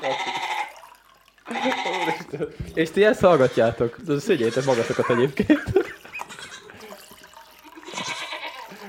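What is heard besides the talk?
goats bleating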